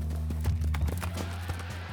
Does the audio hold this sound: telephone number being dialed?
no